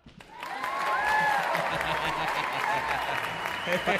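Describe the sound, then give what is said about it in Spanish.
Sustained audience applause, a dense wash of many hands clapping that swells quickly and holds steady for several seconds, with faint cheering voices mixed into the crowd noise. “Para nuestros amigos en Facebook que no están escuchando ni madres, acá nos, están, están aplaudiendo. Aplausos. Nos están aplaudiendo así bien chingón”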